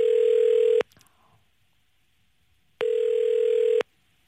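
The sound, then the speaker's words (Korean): Two loud, steady telephone tones as a radio host places a call to a listener during a live broadcast, each lasting just under a second, separated by about two seconds of near silence, like a phone line tone while a call connects. No voices. “6922님 전화 지금 걸어주시기 바랍니다.”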